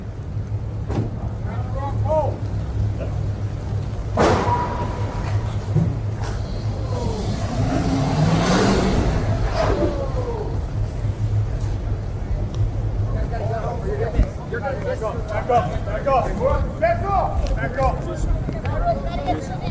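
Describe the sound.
A sharp bang of a car crashing into a parked SUV cuts through in the background, brief, while people talk and a reporter questions President Joe Biden over steady traffic and wind noise.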